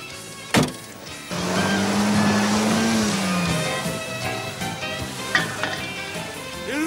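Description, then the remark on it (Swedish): A car engine revs up after a sharp click, its droning pitch climbing and holding for a couple of seconds before easing back down, with steady road-like hiss and a few knocks afterward. “Jag får gasa lite mer.”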